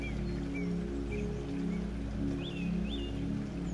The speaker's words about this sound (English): Listen to the sound of the running water.